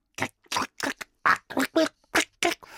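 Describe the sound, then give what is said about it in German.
A voice imitates high-pitched smacking, slurping sounds of eating through a mountain of fruit salad: about nine quick, wet bursts in a steady, rapid rhythm, fairly loud, with no other speech. “und wenn man sich dann durch den Obstsalat Berg Schlemm würde, das würde klingen, ich sag's dir, wie ein Monster-Schmatzorchester, so helle Schmatzer.”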